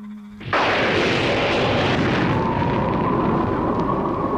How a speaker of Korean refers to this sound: 공포 영화에서 빠질 수 없는 천둥과 바람 소리.